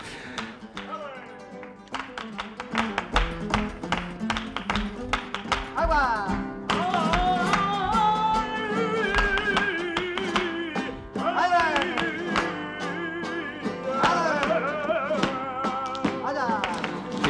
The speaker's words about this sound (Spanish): su taconeo ya era una especie de banda sonora, ¿no?